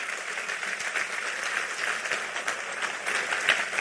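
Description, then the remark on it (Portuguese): An audience applauds steadily, a dense, sustained wash of many hands clapping at an even level for the full few seconds, with no voices standing out, clapping in praise of God. “Aplauda Ele e o caminho que Ele tem para nós é de paz.”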